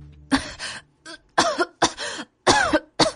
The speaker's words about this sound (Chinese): 袁耀想说什么。但是刚缓过劲儿来，只能一个劲儿的咳嗽。